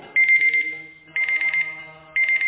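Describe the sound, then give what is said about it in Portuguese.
An alarm clock rings in three loud, shrill bursts about a second apart, each a fast-trilling, high-pitched buzz over a low background hum, with no one speaking. “Eu vou explodir com esse relógio.”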